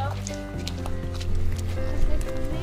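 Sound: horse approaching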